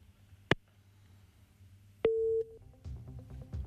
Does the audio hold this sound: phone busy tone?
yes